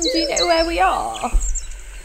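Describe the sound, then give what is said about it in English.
A person asks a question while soft, high bird chirps twitter in the background, continuing faintly after the voice stops; birdsong in the countryside. “although they have been very distracted by the bird song.”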